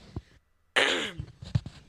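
A woman clears her throat with a short, harsh rasp up close, followed by a couple of smaller throaty bursts, with no talking.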